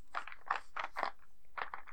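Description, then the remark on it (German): Dice rolling and rattling over a surface, a series of irregular clattering bursts of dry clicks that come in clusters with short gaps between them, at a modest volume with no talking. “Ja, es, es klingt halt so nach diesem klassischen Würfel, die irgendwo drüber rollen.”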